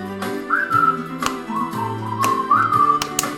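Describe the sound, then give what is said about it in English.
A person whistles a bright, bouncy melody in several sustained phrases, clearly up front over a backing band with steady bass notes and sharp percussive hits. “I can't whistle.”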